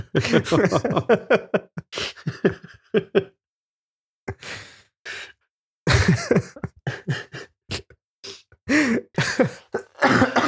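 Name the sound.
coughing and throat clearing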